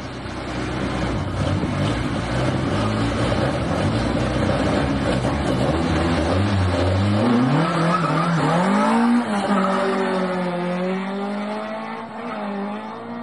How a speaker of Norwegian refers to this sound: Fy flate. Det var eh, tomt for gir og snart tomt for slette. Ja, du hørte at det var en ordentlig Volvo-maskinist, dette her.